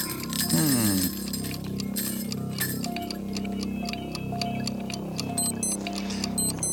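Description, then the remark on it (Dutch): A small alarm clock timer ticks steadily and evenly during a quiz question, its sharp, fairly loud ticks running throughout over a soft, sustained musical drone, with no one speaking. “Wekkertje, wekkertje, wekkertje, wekkertje.”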